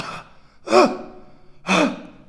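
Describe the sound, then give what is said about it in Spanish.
Someone imitates the dog-like barking cough of croup, a respiratory infection, with two loud, harsh, hoarse bursts about a second apart. Each burst is rough and throaty like a seal's bark, with quiet between them. “¿Sí han oído esa tos de perro? Es como...”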